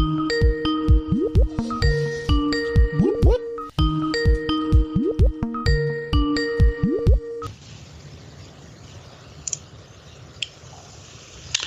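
A chiming phone ringtone plays through two repetitions while a phone call connects, bright, then cuts off into a soft line hiss with faint clicks.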